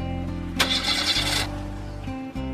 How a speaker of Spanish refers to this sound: Ahora su vieja camioneta se negaba a arrancar.